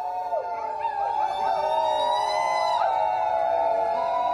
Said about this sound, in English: But finally, last Tuesday, the jury found that police and FBI had violated the activists' civil rights. Outside the courthouse, Earth First supporters howled in victory.